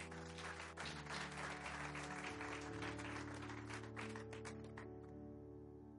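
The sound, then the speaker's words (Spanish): An audience applauds God in a dense, steady wash of clapping over sustained, low organ-like chords, the clapping thinning out and fading toward the end. “Denle un aplauso a nuestro Dios del cuerpo.”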